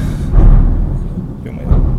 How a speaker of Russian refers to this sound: Гром, сори.